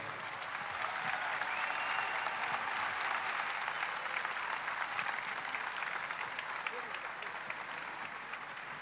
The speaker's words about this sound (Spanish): Y esta plaza los recibe con este fuerte aplauso.